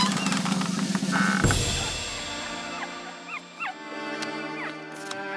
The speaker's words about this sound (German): Oh, oh das ist ja das Traurigste, das ich je gehört habe. Und gesehen. Ja, da sitzen vier kleine süße Hundewelpen, die auf kleinen Geigen ganz traurige Musik spielen. Oh je.